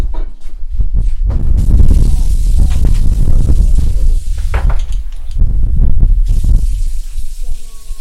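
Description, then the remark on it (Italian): Tap water runs steadily into a sink while two drinking glasses are rinsed, with several sharp glassy clinks and knocks scattered throughout, fairly loud, ending with a faint ringing tone. “Devo lavare due bicchieri, anzi, questo fa schifo.”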